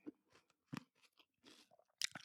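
Crisp crunching of food being chewed with an open mouth for ASMR, a quick irregular series of wet bites and crackles over a couple of seconds, with no talking.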